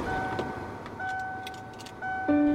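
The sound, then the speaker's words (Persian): A car engine starts up, its steady hum swelling near the end, after a few light key clinks and sustained electronic dashboard tones inside the car, as the driver starts the car to drive off. “بخاری ماشین رو روشن کردم مثل همیشه یکم به اطرافم نگاه کردم و شروع کردم به روشن کردن ماشین و حرکت کردم”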